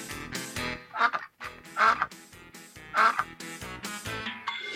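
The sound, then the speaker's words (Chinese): Nasal duck quacks sound in short bursts over a steady musical background, about three standing out clearly at roughly one-second intervals, with fainter honking calls in between. “我就是鸭子。”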